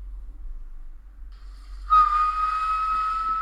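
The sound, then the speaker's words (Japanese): Someone imitates a bush warbler with a whistle: after a near-silent start, one loud, steady high note starts abruptly and holds without wavering until the end, with a faint breathy hiss. “いいえ、あれは、ウグイスを真似ている”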